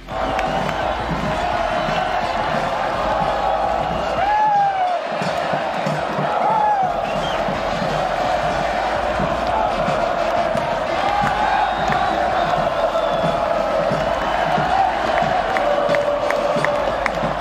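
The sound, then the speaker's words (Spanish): A big stadium crowd of Tigres fans cheers and roars continuously during an early-morning title celebration at the university stadium in Monterrey, a dense wash of voices with scattered whoops and shouts rising above it, loud throughout. “Tras conquistar el Akron, Tigres tomó un vuelo charter a la ciudad de Monterrey para celebrar de madrugada con su afición en el estadio universitario.”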